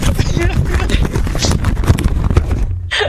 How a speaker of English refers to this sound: I'm, I'm trying sorry, to make what? a sincere point here, and all I hear is. I hear like paper shuffling